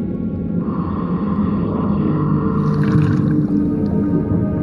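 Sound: blue whale song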